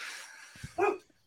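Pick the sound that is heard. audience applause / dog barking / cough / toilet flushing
dog barking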